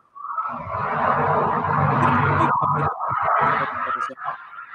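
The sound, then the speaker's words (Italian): A loud, rumbling noise like a truck's engine swells in and holds steady for about four seconds, harsh, with a slight stutter near the end before fading. No one speaks. “Scusa un attimo perché c'era il rumore tipo de, di un camion eh, che sta entrando di...”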